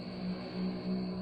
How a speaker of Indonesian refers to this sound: ada motor lewat